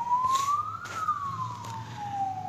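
An ambulance siren wails, its steady tone slowly rising then gliding back down, over a low rumble of traffic.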